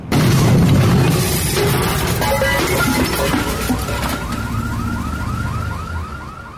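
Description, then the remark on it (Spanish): A loud, booming crash like an explosion erupts at once as a body falling from the Empire State Building hits a parked limousine on 33rd Street in New York, followed by a car alarm's repeating rising whoops and wailing sirens over a dense street rumble. “Un instante después, se escucha un golpe tan duro que suena como una explosión.”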